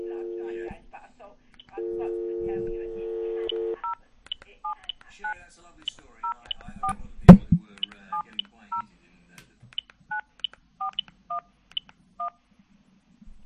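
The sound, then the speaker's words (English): A steady phone tone sounds twice, then a long run of short telephone keypad DTMF beeps follows in quick, uneven succession, interrupted once by a sharp loud clunk midway. “Please enter your PIN.”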